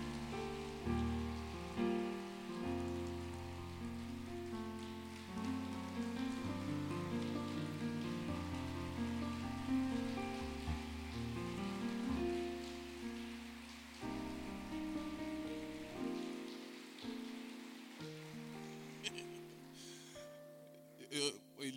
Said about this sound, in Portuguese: Vamos recepcioná-lo com uma salva de palmas.